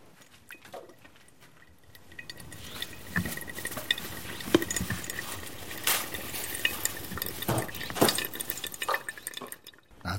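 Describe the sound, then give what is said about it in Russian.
A thin, steady trickle of hot water is poured onto ground coffee in a funnel, just enough to wet the grounds, a soft continuous patter with occasional light clinks of kitchenware, fairly quiet, with no talking. “물줄기를 최대한 가늘게 이 원두가 원두 가루가 적셔질 만큼만 물을 이렇게 들이대서”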